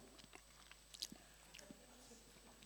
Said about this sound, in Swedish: Och nu ska jag svälja mitt tuggummi.